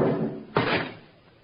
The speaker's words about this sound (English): I, I backed into the room and Baldy kicked the door shut.